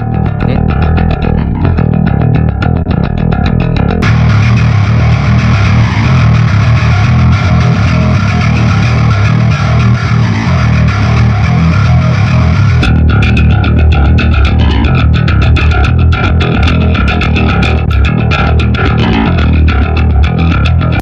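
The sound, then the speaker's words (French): A heavily distorted metal bass guitar tone from an amp simulator plays loud and continuously, with a thick, rumbling low end and gritty upper buzz, its texture shifting a couple of times; no one speaks. “On peut écouter hein, vite fait une basse.”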